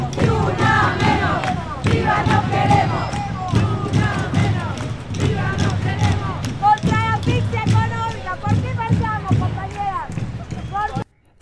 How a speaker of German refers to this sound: So klingt es dann auf einer Demonstration. Also es gehen regelmäßig Zehntausende auf die Straßen und protestieren.